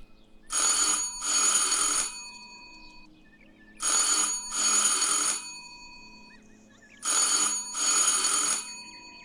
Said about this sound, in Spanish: Da la hora y tocamos el timbre.